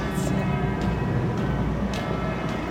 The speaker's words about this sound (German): Und das gibt jetzt auch wieder Glocken